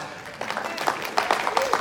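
A brief smattering of applause from a church audience: a handful of scattered, uneven claps at moderate volume, with faint voices murmuring underneath.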